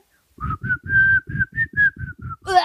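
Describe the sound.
A person whistles a short, bouncy pop melody, about nine clear notes in a quick rhythm, fairly loud, ending on a brief higher flourish.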